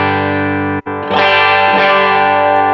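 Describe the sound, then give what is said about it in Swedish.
Electric guitar played through the Lead Warm humbucker preset on a Torpedo unit, a warm, thick, mildly overdriven lead tone, holding a sustained note that cuts out briefly before fresh notes are struck and ring on. No talking. “Vi har, eh, vad ska jag ta det här då, eh, Lead Warm hambucker.”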